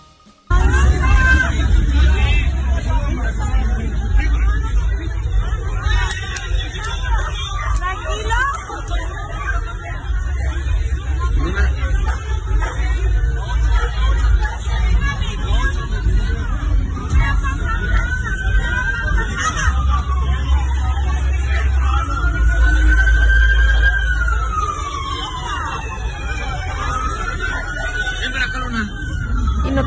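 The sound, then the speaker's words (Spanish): A loud, chaotic brawl at a Fishers restaurant, with waiters involved and chairs being swung: a dense crowd of overlapping voices shouting and yelling nonstop, with rising cries cutting through the constant din, busy throughout. “Los sillazos, porque sí se puso que para qué les cuento.”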